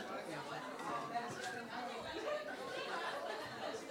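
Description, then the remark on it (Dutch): A steady hubbub of many overlapping voices chattering at once, with a few faint chuckles rising out of the continuous murmur. “Ik hoorde allemaal groezemoer.”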